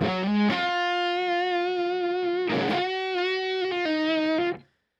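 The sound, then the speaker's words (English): A distorted electric guitar, played through an amp set dirtier than usual and stacked with the Olympus, plays a sustained lead line, a few held notes with bends and slides, gritty and loud, ending abruptly after about four and a half seconds. “And even into that amp, which is a little dirtier than I normally run, like that's still a good lead sound.”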